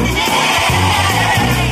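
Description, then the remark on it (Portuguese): A group of voices together imitates sheep, producing a loud, wavering chorus of bleats that fills the short moment, several overlapping tones quivering at once. “Ele fez ovelhas que.”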